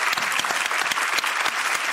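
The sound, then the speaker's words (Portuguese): A crowd claps steadily for an author's career, a dense continuous patter of many hands with sharp overlapping slaps, loud and even throughout with no voices. “Merece uma salva de palmas essa trajetória.”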